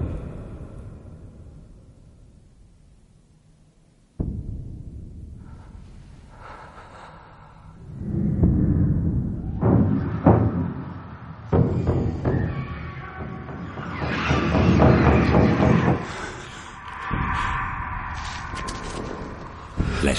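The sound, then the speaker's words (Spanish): Deep, rumbling drum booms rising from the depths of the galleries of Moria, alerting the Fellowship, start low and faint, then swell into a loud, heavy pounding in a slow, uneven rhythm, layered with breathy, gasping textures and no speech. “El sonido de tambores surge de los abismos alertando a la comunidad.”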